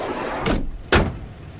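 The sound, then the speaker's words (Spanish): The door of a red minivan closes with two solid thumps as a man gets in by the roadside after loading suitcases and a barrel, the second thump louder and sharper, against a steady low background hum with no voices. “Walt carga las maletas y el barril y sube al coche.”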